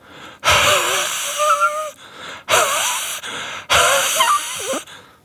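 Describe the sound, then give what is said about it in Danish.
Three long, breathy exhalations, each a loud airy rush with a faint wheezy, whistling edge, separated by brief pauses: a man breathing warm air onto a frozen lock to warm it up. “så læner han sig langt frem til låsen, så hans mund er lige over den, og så begynder han at ånde på den for at varme den op.”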